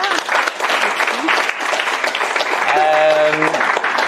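Steady, dense applause from a group, many hands clapping loudly for the whole stretch, with a brief sustained vocal cheer rising over it near the end.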